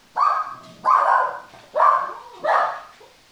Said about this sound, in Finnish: Hei, nyt tulee pieni keskeytys tähän. Ja. Meillä soi kohta ovikello ja koira näin.